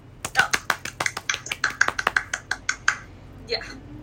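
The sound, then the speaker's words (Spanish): A quick burst of hand clapping as a welcome, around fifteen sharp claps in a steady rhythm for about three seconds, then trailing off into quiet. “bienvenidos a Café Pandora. Aplausos.”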